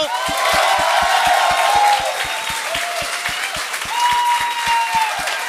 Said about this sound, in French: Voici, donnez une bonne main d'applaudissement à Daniel Grenier et Martin Perizzolo.